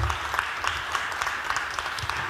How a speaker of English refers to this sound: Who clapped first?